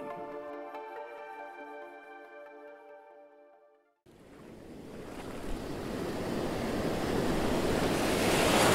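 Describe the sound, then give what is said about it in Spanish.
Sustained tonal music fades out, then ocean waves rush in with steady wind around a ship sailing away from the coast of Norway in windy, rainy weather and rough sea, the broad churning wash swelling louder over several seconds. “Mi Noruega, mi gente, mi todo, se ha hundido en el mar hoy, hundido en la distancia y las brumas a medida que nuestro barco se iba alejando de la costa.”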